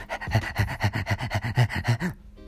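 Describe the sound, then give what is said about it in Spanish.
A person imitates a dog panting: about ten quick, rhythmic huffing breaths with a voiced edge, fairly loud, stopping abruptly near the end. “Como un perro.”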